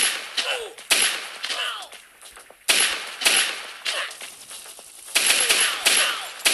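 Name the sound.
video game gunshot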